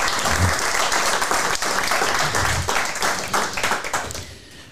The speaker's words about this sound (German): deswegen erwarte ich von allen, die heute da sind, nochmal einen riesigen Applaus für meine Gäste